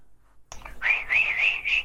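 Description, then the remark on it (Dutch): A person whistles a short, wavering tune, the breathy tone rising and dipping in a few connected phrases after a brief silence, demonstrating the difference between coaxing whistling and calling whistling. “laat het verschil tussen vleertend fluiten en roepend fluiten horen.”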